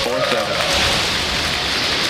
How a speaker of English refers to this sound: It all looked good when a Falcon 9 rocket launched nearly 50 Starlink satellites into orbit last week, but a geomagnetic storm just a day later, effectively destroyed most of them.